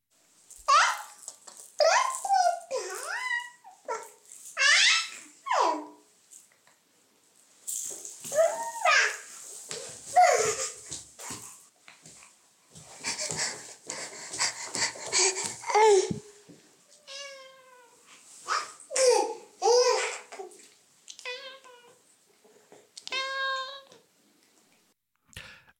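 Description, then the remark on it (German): A cat meows over and over, loud, while a young child chasing it squeals and babbles excitedly, the two voices tumbling over each other in a busy, lively scramble. “wie klingt es eigentlich, wenn man eine Katze jagt?”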